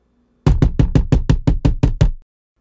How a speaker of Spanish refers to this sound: Cuando se lavaba las manos, su hermano menor tocó la puerta del baño con impaciencia.